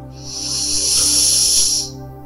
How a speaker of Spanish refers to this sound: vas a conectarte con tu respiración. Vas a inhalar profundo